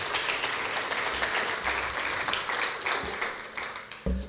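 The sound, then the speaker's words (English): A large crowd at a church service applauds the worship team steadily, a dense wash of many hands clapping at once that holds for several seconds without any talking over it. “Let's give them a hand again this morning.”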